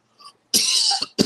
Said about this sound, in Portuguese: O que aconteceu que você está com essa tosse chata aí? Esse calor. Esse frio, calor e frio, isso